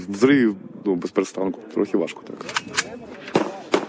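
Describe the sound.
Sharp, irregular bursts of gunfire and heavy artillery shell strikes crack out several times over a few seconds on a war front under constant shelling, loud, with voices audible in between.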